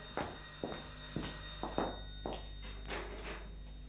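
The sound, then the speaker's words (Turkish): An old-fashioned telephone bell rings steadily, its rapid metallic strikes repeating in a quick rhythm over a sustained ringing tone, fairly loud with no voices. “O telefon benim için çalıyor.”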